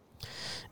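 A single sharp sneeze, a sudden hissy burst of breath lasting about half a second, rising quickly and then fading, with no talking around it.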